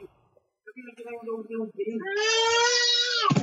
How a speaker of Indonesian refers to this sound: Wih, teriak adek.